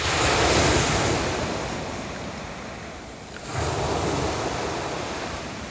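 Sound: sea waves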